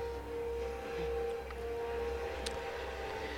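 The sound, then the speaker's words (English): Eerie film-score music of glass harmonica and electric saw, holding a steady, sustained high tone with a faint low drone beneath, at a moderate, even level with no voices. “Now, this music is a glass harmonica and electric saw.”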